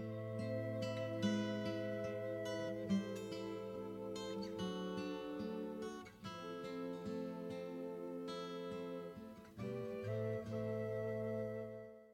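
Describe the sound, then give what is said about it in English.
A very quiet, soft instrumental passage from a rock song with 1970s-style mastering plays with no volume adjustment, gentle sustained notes and chords flowing steadily throughout at a faint level, with no voices. “this is the softest part of …. So I've done no volume adjustment on this”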